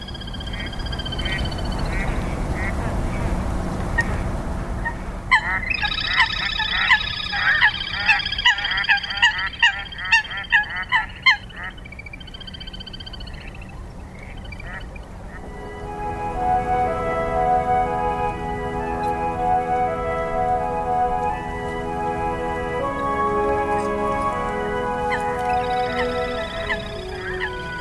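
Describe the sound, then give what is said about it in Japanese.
Little grebe calls on Lake Kitaura, Japan, on a sunny spring day: a loud, rapid whinnying trill of pulsed notes, followed by longer, steadier calls drifting over a soft background of water and the calls of ducks and small birds. “湖はカモや大判そして小鳥たちの鳴き声に満ちています中でもカイツブリの鳴き声がその光によく似合います”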